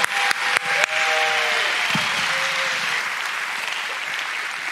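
A crowd breaks into sustained applause, dense clapping filling the space, with a few sharp claps and faint whoops or tones near the start before the ovation carries steadily to the end.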